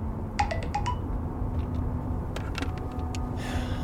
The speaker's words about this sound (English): and then we each start to drive our cars over the mountains to Wapato.